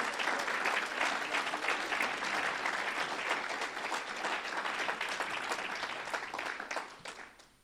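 An audience applauds Christ, dense overlapping clapping sustained at a steady, loud level for several seconds before quickly tapering off at the end.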